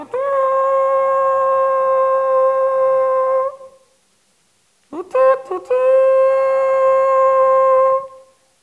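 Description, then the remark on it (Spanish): A shofar (ram's horn) sounds two long, steady blasts with a rich buzzing tone, the first about three seconds, then a short pause, a few sputtering starts, and a second sustained blast, loud. “Así suena, así suena ese chofar.”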